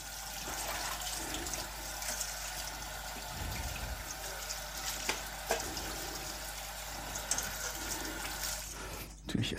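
Running tap water pours steadily as hands are washed beneath it while preparing minced-meat balls, a continuous hiss with occasional splashes and small clunks near the end.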